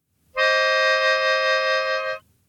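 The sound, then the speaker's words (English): A slightly out-of-tune melodica sounds two notes together as a minor third, held steady for about two seconds at a moderate, even volume, reedy and bright, then stops cleanly with no voices. “When you play those at the same time, it sounds like this.”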